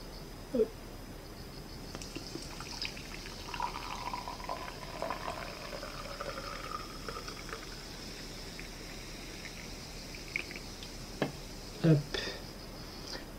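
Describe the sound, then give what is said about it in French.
A drink is poured from a large can, with a steady fizzing, bubbling rush of liquid lasting several seconds, bracketed by a couple of sharp clinks or knocks. “Alors, je commence par me servir à boire.”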